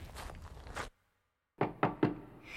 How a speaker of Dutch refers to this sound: De meester klopte op de deur. Eerst drie keer zacht en toen drie keer heel hard.